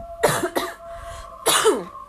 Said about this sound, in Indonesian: ah batukan aduh